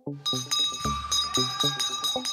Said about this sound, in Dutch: En dit is niet zomaar een bel. Nee, voor het regionieuws gaan we naar Torhout, waar het BK Belleman werd georganiseerd.